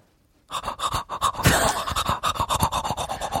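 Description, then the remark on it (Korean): A voice imitates teeth brushing with a quick, steady series of scratchy, hissing bursts, rhythmic and fairly loud, running for about three seconds after a short silence with no speech. “양치하는 소리?”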